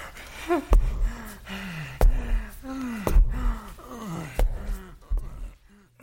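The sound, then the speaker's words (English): Loud, exaggerated gasping and panting of a man out of breath from taking the stairs: a rapid series of heaving breaths with strained, groaning voiced inhales, with no talking. “Oh God, he's taking the stairs. That means he's gonna be way out of breath.”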